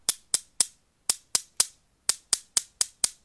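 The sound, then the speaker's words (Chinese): Two black pebbles are knocked together in a steady rhythm: two sets of three bright, sharp knocks, then a quicker run of five or six. The knocks are crisp and loud, with no voices. “原来是维特正在用两个黑色的鹅卵石有节奏地敲击着。”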